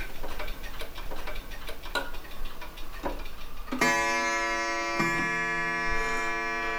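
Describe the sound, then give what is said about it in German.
A dense chorus of over 120 old pendulum clocks, each nearly a metre tall and hung two above each other on the walls, ticking out of step; from about four seconds a sustained ringing chime with rich harmonics swells over the ticking, struck again around five seconds. No voices. “Es sind fast alles alte Pendeluhren, jeweils knapp einen Meter hoch und sie hängen immer zwei übereinander an den Wänden.”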